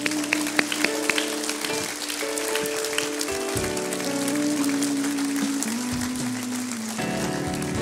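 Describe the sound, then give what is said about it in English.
An audience applauding in praise of the Lord, a dense, steady wash of clapping that fills the whole clip, with sustained organ chords shifting underneath and no talking. “Can we give the Lord a praise right now?”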